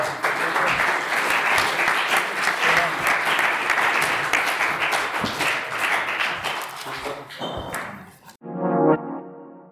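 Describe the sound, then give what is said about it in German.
Sustained audience applause for all participants at the end of a panel discussion, a dense crackle of many hands clapping steadily for about eight seconds, then cutting off into a brief tonal sound at the end. “Bitte einen Applaus für alle.”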